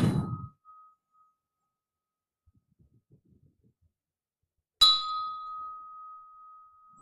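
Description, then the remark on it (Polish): A bell is struck twice with a long silence between; each strike rings out with a sustained tone that slowly fades, the second ring clear and lingering until the end. “No i gdybym był badaczem dzwonów, to zapewne mógłbym e, z tego wykresu powiedzieć e, o tym dzwonie dużo więcej niż robiąc takie doświadczenia, jak my mówimy, stacjonarne.”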